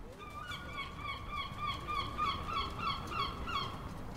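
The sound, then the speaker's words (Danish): Seagulls screech overhead in a rapid, overlapping series of harsh cries, one after another, over a low steady rumble of wind or water at the quay of Hobro harbour. No one speaks. “På himlen over dit hoved skriger mågerne, og nede i vandet kan du se små fisk svømme rundt.”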